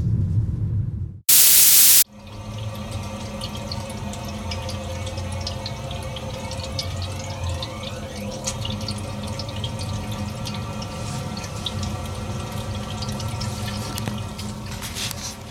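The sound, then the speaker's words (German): A steady hiss and faint trickling run alone, with scattered soft drips and gurgles, like water moving through a home heater; a brief loud burst of static cuts in near the start. “Ich weiß jetzt nicht wirklich genau, woher diese seltsamen Geräusche aus meiner Heizung kommen,”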